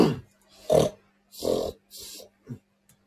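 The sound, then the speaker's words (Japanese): A person imitates a pig's snorting nose sound for a jingle, with a series of snorting, grunting bursts, five or so uneven blasts and a tiny final one, fairly loud with a low hum underneath. “最後のこの豚鼻をどういう風にしよう。”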